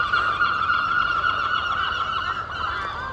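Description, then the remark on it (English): Seagulls calling continuously in a loud, overlapping chorus of harsh, honking cries over the harbour at Mevagissey in the morning, filling the whole stretch with no pauses and no talking. “Of course, the seagulls have been awake longer than everybody else.”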